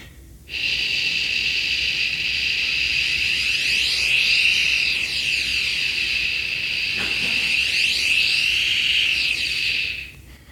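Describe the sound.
In an echolocation demonstration, a person makes a steady voiced "shh" hiss for about ten seconds while moving a panel toward and away from themselves; its tone sweeps and shimmers twice as the panel moves, then it stops abruptly. No speech.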